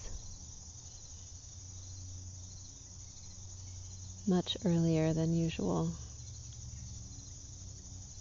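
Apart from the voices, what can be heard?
crickets chirping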